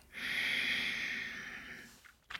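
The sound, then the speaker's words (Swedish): One long, steady exhale through the nose with the mouth closed, as a breathing technique, a breathy hiss lasting nearly two seconds before trailing off, followed by a faint short rustle. “Och andas ut genom näsan med munnen stängd.”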